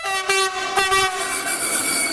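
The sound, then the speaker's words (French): A loud, sustained train horn blast sounds, a steady harmonic blare lasting a couple of seconds with rumbling rail noise underneath. “Ça valait bien un coup d'avertisseur.”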